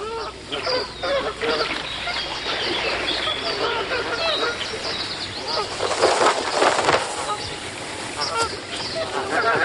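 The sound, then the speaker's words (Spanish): A flock of geese honks and calls continuously and loudly, with bursts of wing flapping rising midway through the commotion. “¡Gansos! ¡Ey! ¡Entren al saco!”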